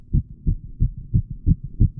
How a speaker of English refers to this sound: But the beating grew louder, louder. I thought the heart must burst. And now a new anxiety seized me. The sound would be heard by a neighbor.